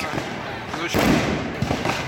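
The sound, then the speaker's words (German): Loud bangs and sharp gunshot-like cracks ring out over a noisy outdoor crowd at a street protest: one big broad blast in the middle, then a couple of quicker, lighter pops. “Es knallt und man hört auch Schüsse, eigentlich wie im Krieg.”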